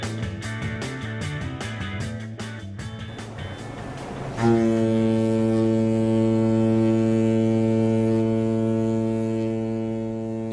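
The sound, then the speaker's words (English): Busy waterfront ambience at a Seattle ferry terminal on a drizzly afternoon, with rumbling activity as passengers wait for the ferry to Bainbridge Island, then a ship's horn sounds a single loud, deep, sustained blast that drones steadily for about six seconds until the end. “It's a oh. drizzly afternoon in Seattle, and I'm waiting for the ferry to Bainbridge Island.”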